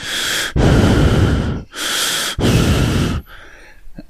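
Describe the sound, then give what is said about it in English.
A voice imitates heavy, close-miked breathing: four loud, rasping breaths alternating in and out in a steady rhythm, each about a second long, then a brief quiet tail. “And then all you could hear was him breathing”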